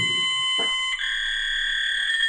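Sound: fax machine transmission tones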